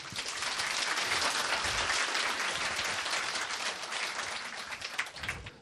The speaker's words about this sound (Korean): 박수를 한번 쳐주세요.